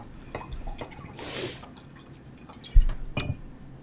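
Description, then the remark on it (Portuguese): Water is poured into a glass, a short splashing rush followed by scattered drips and a clink or two of the glass, with no talking. “Mais água.”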